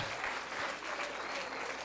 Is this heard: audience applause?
yes